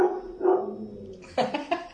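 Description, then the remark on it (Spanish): A pet dog gives a few short barks, preceded by a drawn-out whiny yelp, with no voices around it. “Pues regresando otra vez por la introducción de mi perro.”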